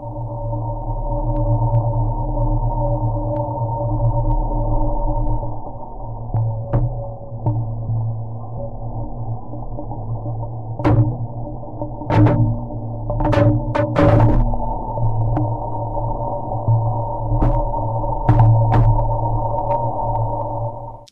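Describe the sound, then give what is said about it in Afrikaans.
Sonified data from the BepiColombo spacecraft's Earth flyby: a steady layered drone of low tones with a throbbing hum, punctuated by scattered sharp clicks and brief bright chirps, especially in the second half. No voices. “Opnames is van verskeie ruimteverskynsels gemaak en na hoorbare klank omgesit.”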